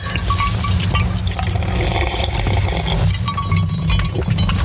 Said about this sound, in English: oh, let me get one more sip of water.